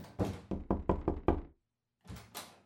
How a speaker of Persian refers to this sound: خانم در چرا انقدر آرام میبندید محکم استوار در رو ببندید